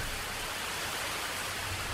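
torrential rain

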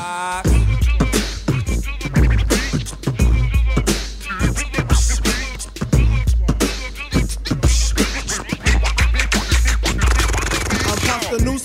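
hip-hop song playing

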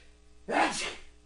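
sneeze

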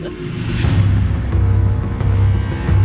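music playing

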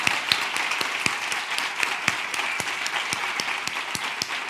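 audience applause

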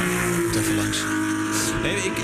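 ferrari engine revving

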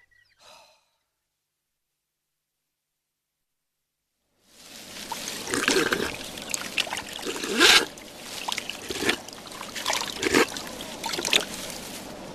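water trickling and pouring

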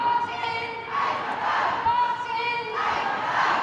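protest crowd chanting

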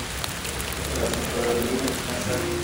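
steady rain falling

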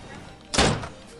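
door slamming shut

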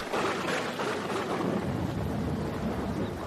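rain falling sound effect

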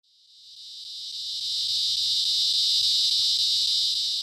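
cicadas buzzing loudly

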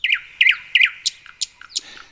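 nightingale singing

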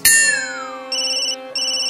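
phone ringtone

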